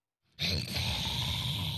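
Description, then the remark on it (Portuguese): A rough, guttural goblin grunt sound effect kicks in suddenly after a brief silence and holds steady and loud for over a second, a gravelly growl with no talking. “Goblin.”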